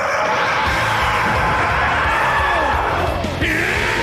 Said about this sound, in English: You got to see this guy. Got to see this guy screaming. It's incredible, incredible stuff.